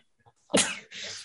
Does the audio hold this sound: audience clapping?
no